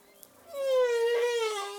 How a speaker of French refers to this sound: c'est une baleine à bosse.